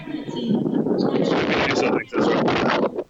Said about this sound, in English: All right, a little bit windy